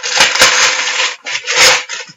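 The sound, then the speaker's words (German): Loud ripping and crackling of a white cardboard package with glass inside being torn open, in two rough bursts separated by a brief pause, with no talking. “Ah, ich öffne es.”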